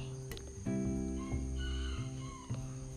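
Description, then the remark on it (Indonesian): A rooster crows in a long, drawn-out call that rises and holds with a few pitch shifts, clear, with faint insect chirping in the background and no talking. “tuh suara ayam”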